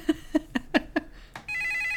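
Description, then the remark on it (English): An old-fashioned telephone-style Skype ringtone signalling an incoming call: five quick, evenly spaced bell-like rings, a brief pause, then a steady sustained ringing tone, moderately loud with no talking. “Why does your Skype thing sound like a regular old timey phone call?”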